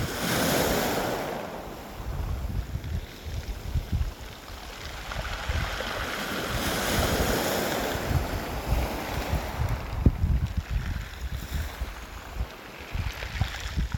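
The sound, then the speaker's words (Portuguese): Sea waves wash continuously over small black pebbles on a stony beach with no sand at Kaikoura, a broad rushing hiss with gentle surges and faint rattling. Wind noise buffets the microphone throughout; no one speaks. “E eu nunca tinha ouvido o som do mar, assim, das ondas quebrando em pedra, sabe?”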